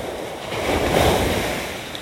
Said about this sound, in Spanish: Estamos escuchando el Mar con solo 14K desde Puerto Rico.